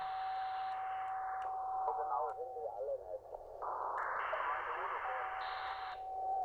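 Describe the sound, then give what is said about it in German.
A steady, continuous high beep of a CW (Morse) signal from a shortwave receiver as someone tunes in, over hissy radio static, with the noise band narrowing and widening as filters change, including a narrow filter for CW, and faint garbled voice sounds in the middle. “Für CW ist natürlich ein schmaler Filter sinnvoll. Da stimmt jemand ab, da hört man es piepen.”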